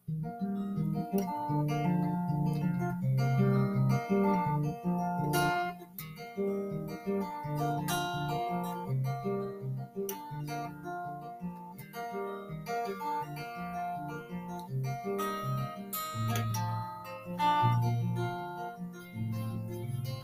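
A mellow classic rock song plays steadily, with strummed acoustic guitar and a warm melodic line, moderately loud and continuous throughout, with no talking over it.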